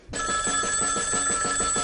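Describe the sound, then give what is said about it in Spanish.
A telephone bell rings loudly, a rapid metallic trill that starts abruptly and keeps going without a break. Nobody speaks. “¿A quién le cojo el teléfono?”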